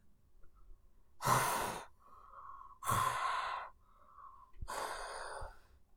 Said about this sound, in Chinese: 蹦蹦畅快的打着呼噜，跳跳给逗得咯咯笑。每次呀，他听到蹦蹦打呼噜，总是觉得很滑稽呢。